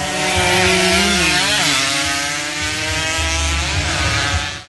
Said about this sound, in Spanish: Adrenalina pura en la primera válida departamental de velocidad que se disputó aquí en la ciudad de Valledupar. Los motores rugieron en la capital del Cesar.